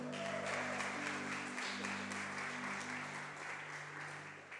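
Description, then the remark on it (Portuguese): An audience applauds Jesus at a night service, steady dense clapping filling the whole stretch at an even level, with a sustained low musical drone or keyboard tone held underneath and fading slightly at the end. “E quem já vai recebendo aí a palavra profética sobre a tua vida, já vai aplaudindo Jesus aí, tá bom?”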